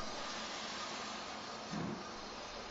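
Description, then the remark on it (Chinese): A train stopped at a platform at Thwaite station at night, with a steady, loud hiss like venting steam filling the whole clip and a brief low thud partway through. No voices. “火车停在了一个站台上”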